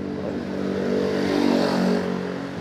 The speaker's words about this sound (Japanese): こうやって前からねなんか大きそうなバイクが通るのでちょっと音入ると思います